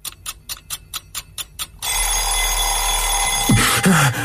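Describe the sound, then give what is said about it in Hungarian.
An alarm clock rings in loud, rapid, evenly spaced bursts for nearly two seconds, then cuts off as a dense, steady rushing noise takes over. “Ha ezt valóra is szeretnénk váltani, akkor ébresztő.”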